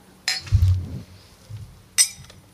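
Two bright, ringing clinks of glasses touching during a toast, one early and one near the end, with a soft low thud between them and no voices.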